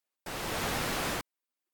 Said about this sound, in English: It's got to be interference. Look outside. Is is there a storm brewing? No. Clear skies.